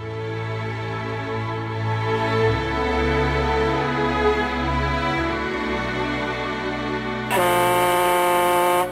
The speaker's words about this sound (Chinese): 一会儿，工厂下班的汽笛响了起来。